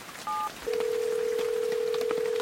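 A single short two-tone keypad beep from a cell phone as a number is punched in, followed by a steady, unbroken electronic tone that holds to the end, over a faint crackly background hiss.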